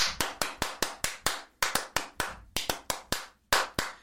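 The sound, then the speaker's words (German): A single person claps steadily, about fifteen sharp claps in even groups with brief pauses between them, no talking over it. “Ich klatsche mal ein bisschen und dann können wir anfangen.”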